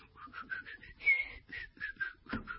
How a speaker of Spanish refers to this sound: Yo si voy silbando por la calle